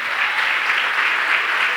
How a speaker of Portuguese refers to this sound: Aplauda ele aí, vamos aplaudir?